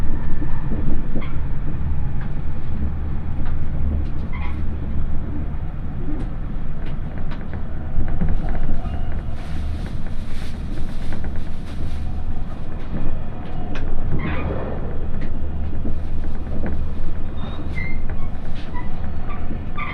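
A Yosan Line limited express train, Ishizuchi No. 25, running from Tadotsu toward Iyo-Mishima and approaching Kawanoe, runs steadily along the rails with a deep, continuous rumble, scattered clicks and rattles of wheels on track joints, and occasional sharp metallic squeaks, with no voices.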